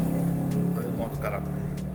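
vehicle, motorcycle passing by

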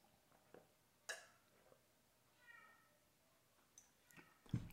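animal, cat meowing

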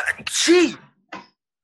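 human body sound, sneeze

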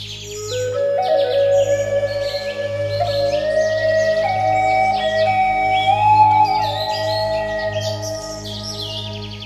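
bird, birds singing

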